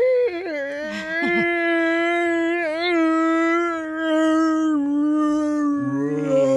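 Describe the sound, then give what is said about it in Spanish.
A person fakes exaggerated slow-motion crying: one long, drawn-out, wavering wail, loud, sliding slightly in pitch and ending in a lower sob, with no other sounds. “Estoy llorando en cámara lenta, güey.”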